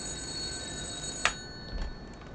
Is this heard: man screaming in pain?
no